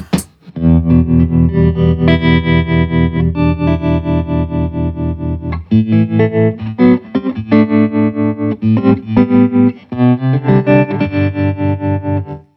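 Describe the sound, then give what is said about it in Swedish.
An electric guitar plays sustained chords through an amp tremolo set to blackface mode, the volume pulsing in a steady, rapid throb. The playing is loud, with a brief pause midway before strumming resumes. “Sen när det kommer till tremolot. Nu står den på blackface.”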